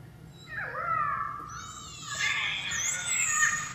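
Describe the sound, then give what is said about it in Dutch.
Orca calls, produced through the blowhole and the melon: a series of squealing, whistle-like cries sweeping up and down in pitch, some overlapping, over a steady low underwater rumble, with no talking. “Dit zijn orka's.”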